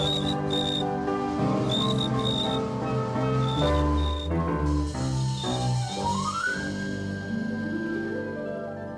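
Short, high-pitched cricket-like chirps repeat in pairs over a full orchestral tune, likely played by an instrument imitating a cricket; the chirps fade out as the music continues.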